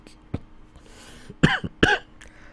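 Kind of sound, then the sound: human body sound, cough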